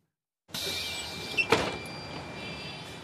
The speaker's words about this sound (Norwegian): Folk hopper av og på bussen i den tette trafikken i New Delhi.